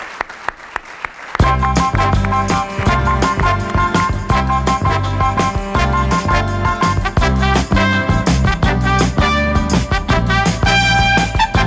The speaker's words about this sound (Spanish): Pues como hablabas de pedir, yo voy a pedir un fuerte aplauso, por favor, para Enrique Domínguez Uceta, que nos ha contado cómo es esta comarca de Valdeorras, donde hoy estamos haciendo en directo Gente Viajera.